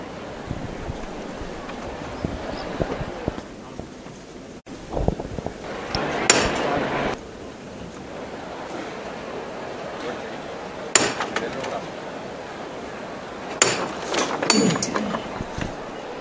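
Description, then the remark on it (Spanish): A few sharp metallic knocks from the knocker of a Holy Week procession float carrying a Christ figure ring out at spaced intervals, signalling the lifting of the float, over a busy outdoor crowd murmur with some wind rumble, followed by shuffling and movement. “Ahora vamos a escuchar la levanta.”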